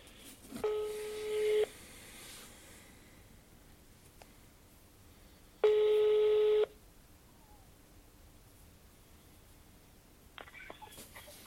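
A phone line ringing back: two steady, buzzy one-second tones spaced several seconds apart, then a faint click as the call connects. No one speaks.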